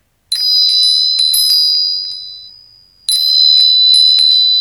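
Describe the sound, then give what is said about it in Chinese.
A small bell, used in a song arrangement during a passage from the opera Dou E Yuan to represent heaven, rings in two bright, shimmering bursts of rapid tinkling strikes; the first rings out and fades slowly before a second flurry starts, high-pitched and clear with no voices. “然后这个铃铛它代表着在后面那个《窦娥冤》那个唱段中有用到这个铃铛，它就是代表着天 天上 上的， 嗯 就是大概有那种呃是 俯视角度 俯视的 的 角度的那 嗯 个，嗯，听一下。”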